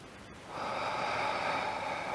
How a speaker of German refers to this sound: Wir atmen zusammen durch die Nase ganz tief ein. Und atmen durch den Mund alles wieder aus.